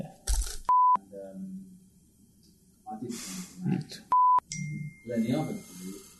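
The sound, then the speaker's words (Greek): Two short, loud telephone beeps sound a few seconds apart, each followed by a recorded voice announcement, as when calling a number that is switched off. “αυτό το τηλέφωνο είναι κλειστό.”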